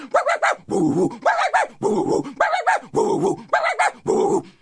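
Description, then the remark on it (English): A voice imitates Wiley's two dogs barking and baying: about seven drawn-out, wavering yelps in a steady rhythm, loud, with short gaps between them and no ordinary talk. “Wally said, them's my dogs.”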